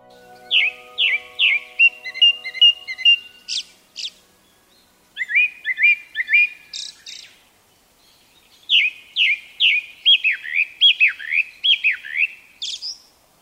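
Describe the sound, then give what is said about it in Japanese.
A Japanese thrush (kurotsugumi), a thrush about 20 cm long, a little smaller than a pigeon, sings clear, varied whistled phrases in three bursts separated by short pauses, each made of rapid repeated notes, bright against a quiet woodland background. It calls from woods beside a tennis court in a quiet holiday-home area along the river near Tōkatta Onsen. “黒つぐみですその名の通りつぐみの仲間で体長およそ20センチ鳩より少し小さい鳥ですオスは頭から胸までが黒くくちばしは黄色全体に黒っぽく見える鳥で白いお腹に黒い斑点が目立ちます”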